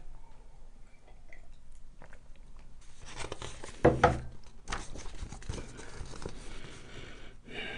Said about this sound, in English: Sip a tea. Back away from the mic.